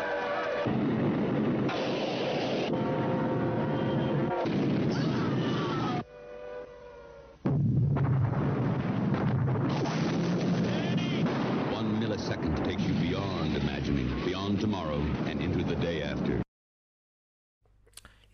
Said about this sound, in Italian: trailer eh, era ovviamente quello originale in lingua inglese e il tema mi sembra ben introdotto anche dal suono della bomba alla fine dello stesso